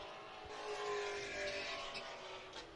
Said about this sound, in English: those engines do sound very good. yeah, the first one passed was that new uh, GT350R, the Shelby G- GT350RC